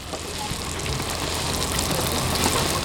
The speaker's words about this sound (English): Here, fresh fry bread sizzles in pans of cooking oil, served up with maple sugar and strawberries or taco style with bison meat.